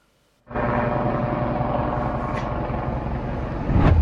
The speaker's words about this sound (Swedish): Här är de sista bilderna på Kobe Bryants helikopter Minuter senare kraschade den i en olycka som orsakade totalt nio människors liv.